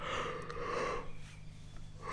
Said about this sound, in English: Another yawn.